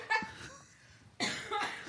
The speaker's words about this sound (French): Oh là là, on a une mauvaise toux là